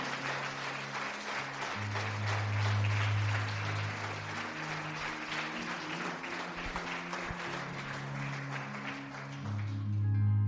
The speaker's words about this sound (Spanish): Porque damos un aplauso fuerte a nuestro Dios.